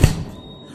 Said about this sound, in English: And I'm shaking and I'm holding the bylaws and I'm gripping them. And he's panting and he's wheezing and he's laughing. And I swing the book hard into his skull. Crack!